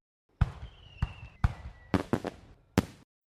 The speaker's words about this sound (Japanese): あそこ。花火が見えますよ。